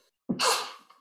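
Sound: sneeze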